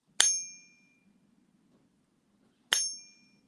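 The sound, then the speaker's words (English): Two bright metallic pings from a struck four-nines purity silver bar, each ringing clearly for about a second before fading, spaced a couple of seconds apart over a faint low hum. “So this is a four nines. Listen to the duration here.”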